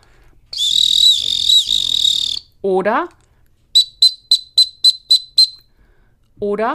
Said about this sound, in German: So, und das war jetzt der kleine Suchenpfiff. Das heißt, nochmal, komm Pfiff, ja, kleiner Suchenpfiff